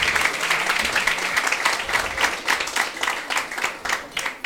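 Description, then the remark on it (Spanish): Steady applause from a group, dense overlapping claps holding an even loudness for several seconds with no voices on top. “Un aplauso para eso, por favor.”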